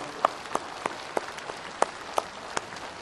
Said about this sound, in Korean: 오늘 우리의 잔치의 주인은 축제의 주인은 하나님이십니다. 그 하나님 앞에 우리 영광의 박수를 올려드리겠습니다. 할렐루야. 할렐루야.